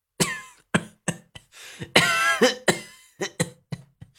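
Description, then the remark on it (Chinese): A man's violent, prolonged coughing fit after angrily cursing: around a dozen harsh, rasping bursts in an uneven rhythm, with one longer, strained hack in the middle, loud and alone with no talking. “他这一激动，直接开骂了，又剧烈的咳嗽了好一阵子。”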